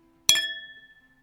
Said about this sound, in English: Wait, cheers. We got to cheers.